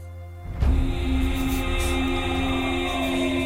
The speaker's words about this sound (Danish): Det her, det er lyd fra traileren, som altså åbner på en døende supermand, som skriger ud over hele verden åbenbart. Det gør rigtig ondt, at han dør.